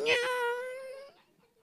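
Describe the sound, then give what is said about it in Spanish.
A person hums a thin, nasal whine in imitation of a mosquito singing in someone's ear, one steady high tone held for about a second before it cuts off, fairly loud. “y el zancudo se le va.”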